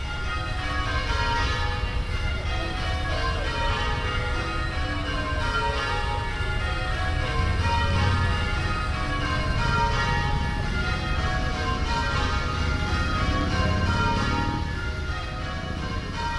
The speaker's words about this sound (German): Das Lustige ist, ich habe diesen Glockenturm von draußen. Da klingt er so.